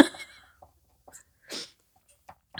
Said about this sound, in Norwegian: Nå sitter jeg der og klemmer noe på plass med hansker og superlim, og så må jeg nyse.